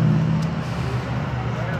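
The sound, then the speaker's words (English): A steady, low rumble of road traffic fills the whole moment, engine drone holding at an even level with no single car clearly swelling past. “All these cars me? are gonna be exciting to listen to.”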